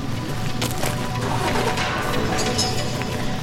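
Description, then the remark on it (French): Earthmoving machinery on a timber building construction site, working on the outdoor courtyard, keeps up a steady, loud low engine rumble, broken by scattered sharp cracks and knocks of wood or metal throughout. No one speaks. “Alors autour de nous, on entend beaucoup de, bruit d'engins de chantier.”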